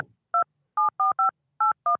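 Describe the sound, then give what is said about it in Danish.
Six electronic keypad beeps as a callback phone number is entered while waiting in a phone queue, each a short dual-pitched tone, spaced unevenly with a cluster of quick presses in the middle, clear with no talking. “Indtast det telefonnummer, du ønsker at blive ringet op på.”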